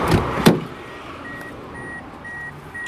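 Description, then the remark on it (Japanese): A couple of dull thumps of someone climbing into a car and a door shutting, followed by a quiet interior with a steady, evenly spaced electronic chime repeating in the background. “それでは早速、車に乗り込みます。”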